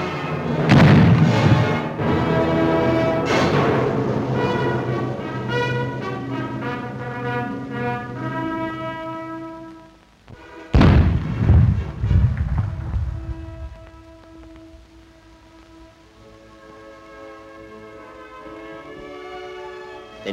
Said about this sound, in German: Volle Deckung wird genommen, rasch die alte Holzkanone gerichtet, dann Schuss und Pulverdampf.